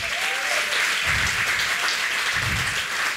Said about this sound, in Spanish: Los de alabanza, usted lo ve siempre aquí, están preparándose todas las semanas. Denle un fuerte aplauso a ellos.